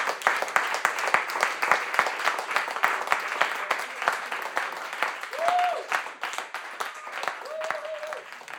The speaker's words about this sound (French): Peut-être que le rituel de clôture, ça pourrait être ça, envoyer une salve d'applaudissements à nous tous pour tout ce qu'on a déjà fait.